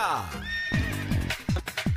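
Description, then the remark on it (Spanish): A horse whinnies loudly, a long shrill call with quavering, descending pulses, followed by a few shorter snorting bursts. “Con las orejitas del caballo Alvin Díaz”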